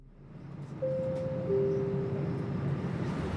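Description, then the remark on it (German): A steady rolling rumble of a train on rails travelling from Passau to Deggendorf, with thin tonal whines rising out of the noise partway through as it keeps moving. No one speaks. “Mit dem Zug brauche ich eine Dreiviertelstunde von Passau nach Deggendorf.”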